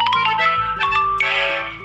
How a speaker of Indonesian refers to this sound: Aduh ya notif.